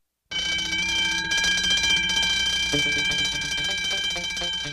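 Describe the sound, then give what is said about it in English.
A loud bank alarm siren rings nonstop at night as a thief breaks into the bank, starting abruptly and holding steady, shrill tones with a harsh, rattling buzz underneath for several seconds. “Just then, a siren rings and all of the lights in the bank turn on.”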